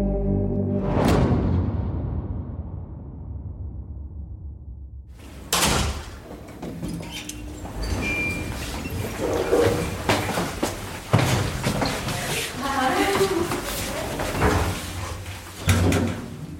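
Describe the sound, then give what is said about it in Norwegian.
Elevator doors slide shut with a heavy thud that rings out and fades, then after a pause a steady rumble of clattering, clunking mechanical noise takes over as the elevator travels down to the reception. “Da er vi i heisen nedover eh, til eh, resepsjonen”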